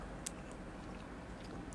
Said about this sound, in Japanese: 咀嚼音が苦手な人は、ちょっと申し訳ないんですけども、そっと知してください。